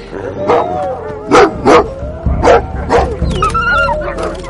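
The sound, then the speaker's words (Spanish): A dog, Bell, barks in sharp, loud bursts, about five spaced a fraction of a second apart, with high whining and yelping tones drawn out between and after the barks, as it chases off one of a pack of wolves. “Bell ahuyenta a uno de los lobos.”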